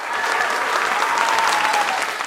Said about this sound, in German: Applaus, Jubelschreie für Sebastian Rode, als er seine ersten Schritte in die Mensa geht.